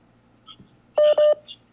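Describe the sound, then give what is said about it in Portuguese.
Two loud, steady electronic keypad tones sound back to back, each lasting about a sixth of a second, with faint clicks and line hum around them, like buttons pressed during a phone call. “Agora o telefone aqui não para não.”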